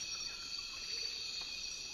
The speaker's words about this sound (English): i begin to hear the insect patterns and how they are rhythmic and each rhythm is a different insect